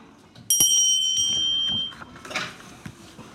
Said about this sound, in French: quand t'entends la cloche, tourne la page.